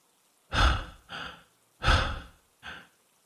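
Heavy, ragged panting of a man catching his breath after struggling inside and roughly shutting a door: two rough breath cycles, each a longer loud gust followed by a shorter one, with brief silences between and no talking.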